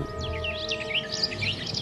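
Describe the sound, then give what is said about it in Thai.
A flock of weaver birds chirping together, a dense stream of quick, high, overlapping tweets that carries on steadily over a low background hum, with no talking. “ผ่านมาพบนกกระจาบฝูงนี้เข้า”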